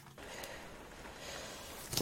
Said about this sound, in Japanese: 雨の音いかがですか